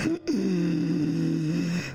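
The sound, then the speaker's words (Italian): A person demonstrates a forced, noisy inhalation: one long, strained breath drawn in for about a second and a half, rasping and loud, with a low droning voiced tone running through it. “Può essere che qualcuno per cercare di simulare il rumore nella fase di ispirazione faccia qualcosa di questo genere.”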